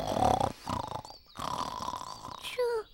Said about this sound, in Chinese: 好像有人在打呼诶，我想食物小偷一定就在前面。